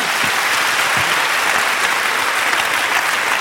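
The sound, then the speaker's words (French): Sustained audience applause for Christophe André at the end of the year's last France Inter conference, a dense, steady wash of many hands clapping at even loudness throughout, with no voices standing out. “Merci d'avoir assisté à, à, cette dernière conférence de l'année avec Christophe André, que je vous prie d'applaudir.”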